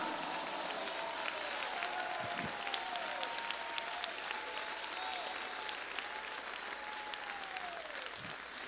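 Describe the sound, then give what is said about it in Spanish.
An audience breaks into sustained, dense applause that holds steady for the whole stretch, with a few voices calling out over the clapping. “¿Quién no aplaude a un gran pastor así?”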